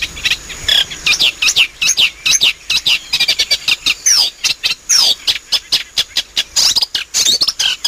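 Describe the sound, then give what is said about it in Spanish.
A single marsh bird sings in spring from the top of a curved reed swayed by the wind in the marshes, a rapid, continuous stream of chattering, scratchy phrases and whistles, loud, with no one talking. “Está tan contento, está tan contento porque ha llegado el calorcito, la primavera que se nos avanza y él está ahí en lo alto de un junco curvado, ah, mecido por el viento”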